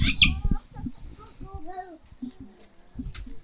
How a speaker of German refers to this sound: Ja, jetzt kommen wir zu den Papageien. Die waren aber auch ganz schön zinnober da schon, ne? Ja, die freuen sich immer, wenn da jemand vorbeikommt. Sind auch so geborene Entertainer.